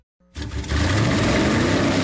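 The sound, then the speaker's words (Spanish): After a brief silence, a loud engine roar of a car or motorcycle bursts in and holds steady, swelling as it revs with no voices. “Voces y rugidos en autos y motos de Blue Radio.”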